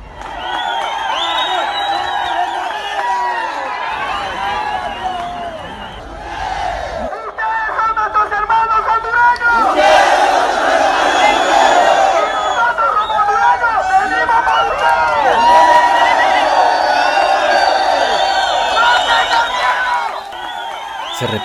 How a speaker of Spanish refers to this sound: las consignas y arengas, himnos, saltos y gritos de los dos lados del río Suchiate durante varios minutos antes de que una fuerte tormenta comenzara a dispersar poco a poco la manifestación.